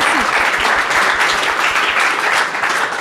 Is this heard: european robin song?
no